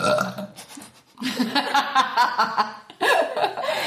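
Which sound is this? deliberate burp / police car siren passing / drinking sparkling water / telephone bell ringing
deliberate burp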